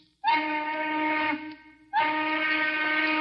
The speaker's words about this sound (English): The whistles atop the gaunt, dark smokestacks shriek out their call to change shifts. Three times a day, every eight hours, the factories consume and eject their daily armies of auto workers.